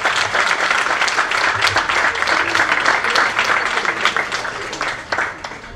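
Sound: audience applause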